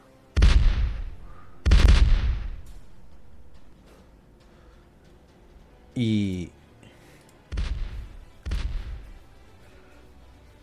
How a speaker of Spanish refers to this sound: no saben de dónde viene esta marejada de, de cañonazos.